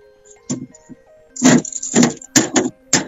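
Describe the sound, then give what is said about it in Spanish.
A refrigerator door, fitted with a combination padlock, being opened, with a run of about five rattling clunks and thuds over a faint steady hum, no voices. “A ver, señor director, acabo de abrir la heladera.”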